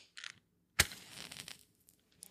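A match is struck: a quick scratch, then a sharp rasping strike that flares into a brief hiss of flame before fading to quiet. The match is used to light a scented candle.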